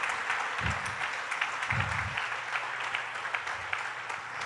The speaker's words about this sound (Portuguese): Diga aleluia, aplauda Jesus.